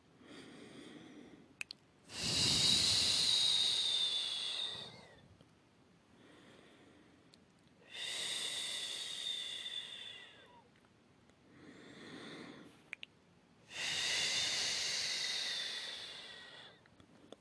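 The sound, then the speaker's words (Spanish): Slow, deep breathing during a guided breathing exercise of about 20 minutes: three long, loud, rushing exhalations spaced evenly, with softer inhales in between and no talking. “Van a ser como unos 20 minutos la respiración, pero vale la pena porque se van a sentir muy bien.”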